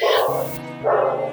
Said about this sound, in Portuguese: cachorro tá latindo. Hoje. Sempre tem um cachorro latindo, né, mano?